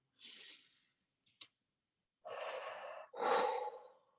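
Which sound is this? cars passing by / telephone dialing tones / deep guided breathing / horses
deep guided breathing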